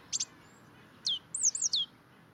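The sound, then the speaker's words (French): Tits singing: a quick double chirp, then a pause before a run of high, thin whistled notes that slide and warble over a faint background hiss. No voices. “Il tient ainsi jusqu'à entendre le chant des mésanges, signifiant que l'hiver s'affaiblit.”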